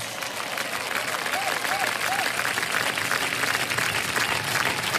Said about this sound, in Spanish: Aplausos.